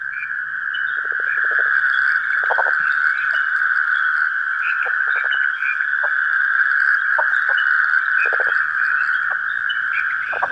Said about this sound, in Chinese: 这首也不能说是曲目了，这一段声响当中的是一系列的夏虫，他们在拥挤当中发出各自的声音